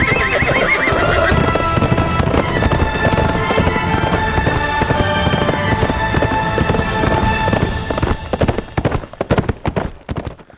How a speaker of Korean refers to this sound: 말이 뛰는 소리가 네네네. 진짜 살아있네요.